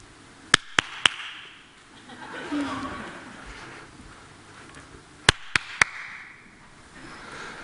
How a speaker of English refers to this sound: now, we're going to do a little demonstration, right? You have to close your eyes and you have to point where you hear me clapping, all right?